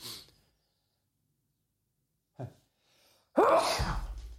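A single loud sneeze bursts out after a quiet pause and a short sharp intake of breath, its explosive release trailing off with a brief rough tail.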